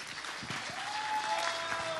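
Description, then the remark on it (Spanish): Steady applause from a crowd for the band's musicians, dense and even clapping filling the whole clip at moderate loudness, with a faint whistle-like tone gliding through partway. “Ya, un aplauso para todos, ya.”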